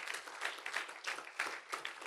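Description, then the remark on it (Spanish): A crowd applauds steadily in praise of God during a sermon, many hands clapping in a dense, continuous wash of bright, crackling noise with slight swells in intensity, and no voices heard. “¿Cuántos, le pueden dar ese fuerte aplauso Él es digno de que nosotros lo hagamos de, esa manera.”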